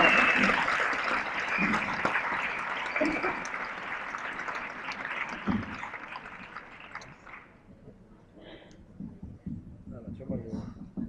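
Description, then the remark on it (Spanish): A crowd breaks into loud, sustained applause welcoming the group introduced as a band, a dense wash of clapping that holds for several seconds before thinning out, with voices and a few scattered claps and cheers lingering at the end. “Con todos vos, …, fuertes aplausos.”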